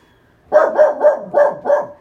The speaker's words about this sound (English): There is the dog that wants to get involved because Dobby always wants to have some fun.